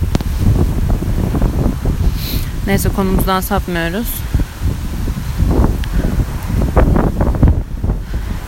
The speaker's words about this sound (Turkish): Yani uçacağım galiba bir rüzgar şu an. Şaka mı bu?